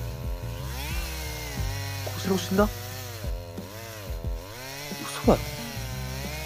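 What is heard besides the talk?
chainsaw running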